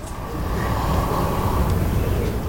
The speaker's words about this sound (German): Diese Riesenschildkröte klingt sehr zufrieden. Und das kann sie auch sein. Schließlich hilft sie dabei, die Biodiversität auf der kleinen Ile au Segret wiederherzustellen.